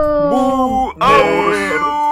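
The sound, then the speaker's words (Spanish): A female dog at home howls in two long, wavering cries, fairly loud, with a short break between them and no talking. “Y también en su casita, acompañado de su perrita, el señor que nos defiende de los criminales”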